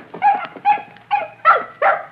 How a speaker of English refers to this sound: It's a puppy. A little white puppy.